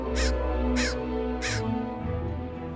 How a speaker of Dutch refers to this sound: Een raaf als speelkameraad.